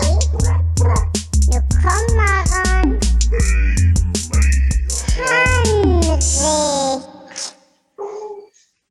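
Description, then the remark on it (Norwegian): A dog barks and yelps repeatedly in the background, loud, with whiny pitch-sliding cries mixed in, then falls quiet before one last short yip. “Som bjeffer og boffer det i bakgrunnen, vet du.”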